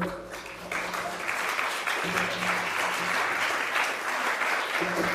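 Sustained applause from an audience, a dense steady patter of many hands clapping at an even loudness for several seconds, with faint murmuring voices underneath.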